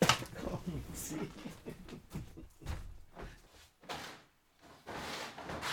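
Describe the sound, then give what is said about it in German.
A door is opened and later shut to put a cat outside, with a few clunks and rattles of handling amid soft shuffling and movement, quieting briefly before the closing. “ich muss einmal die Katze mhm. vor die mhm. Tür bringen.”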